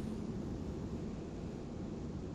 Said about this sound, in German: du bist unterwegs, höre ich gerade im Hintergrund. Im Auto, mit der Freisprecheinrichtung, ja.